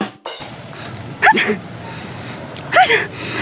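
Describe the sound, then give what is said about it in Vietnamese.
Two sharp, fairly loud sneezes about a second and a half apart, each a quick voiced burst with a hissy breath, over a faint steady background hum. “Trời đất ơi Ai chửi em hay gì á em hắt xì muốn bay cái lỗ mũi luôn á”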